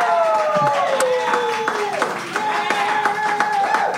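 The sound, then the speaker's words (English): An audience at a live comedy debate event cheers loudly and steadily on the host's request, sustained whoops and shouts layered over a dense patter of clapping hands that continues throughout without a break. “I decide who wins and loses, and when you agree with me, I would like for you to cheer. Give that a shot right now.”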